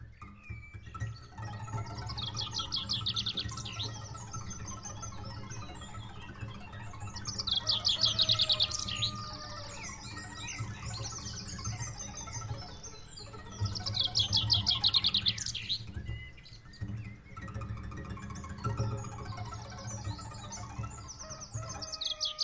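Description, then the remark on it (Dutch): Several birds chirp and trill together in a busy, continuous chorus at five in the morning, with bright repeated bursts of song over a low steady hum, moderately loud, with no one speaking. “uw oren openstellen voor het kraaien van de haan of het geluid van de vogels om vijf uur s morgens.”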